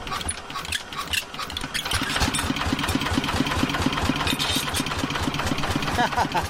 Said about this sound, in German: Eine Frau macht vor der Tür ihrer Hütte den Abwasch und ein anderer Dorfbewohner schmeißt den Trecker an, um aufs Feld zu fahren.